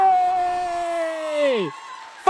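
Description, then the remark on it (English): A live audience cheers in an applause-meter vote for Fawkes as best non-human character, led by one sustained whooping voice that holds a steady pitch and then slides downward before cutting off, with softer crowd noise underneath. “If you think that Fawkes should win, make some noise.”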